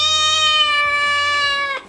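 A single long, drawn-out cat meow, loud, holding a steady tone that sags slightly in pitch before cutting off abruptly, with no other sounds around it.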